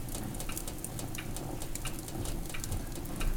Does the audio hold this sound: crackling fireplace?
yes